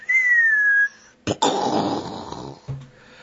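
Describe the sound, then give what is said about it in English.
A person imitates an incoming artillery shell: a steady, slightly falling whistle for under a second, a brief pause, then a mouthed, noisy explosion burst ending in a low thump. “If you go yammering on and on and on on a radio without breaks and things like that, and you allow the enemy to triangulate you, the next sound you hear is”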